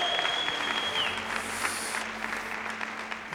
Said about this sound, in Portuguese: Aplaudo nesse lugar mais uma vez e adoro.